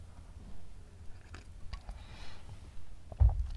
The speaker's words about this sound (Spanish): Por cierto, pausa para trago de café.